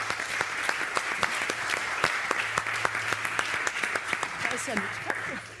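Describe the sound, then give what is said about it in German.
A crowd applauds steadily throughout, a dense wash of many hands clapping with sharp individual claps popping out, sustained for several seconds, as an audience welcomes the chief editor of Der Westen. “Applaus”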